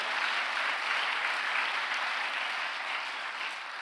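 Steady, dense applause from a large crowd fills the room, many hands clapping at once in a continuous wash of sound that holds evenly for several seconds before easing slightly.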